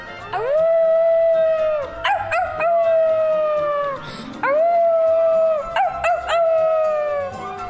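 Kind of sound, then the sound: animal, wolf howling loudly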